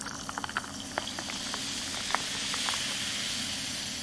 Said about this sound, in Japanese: というわけで今日はねあの M3 でちょっとね PC が回っていることによって結構ノイズが後ろに入ってますけど気にせずに 気にせずにこのままいきたいと思います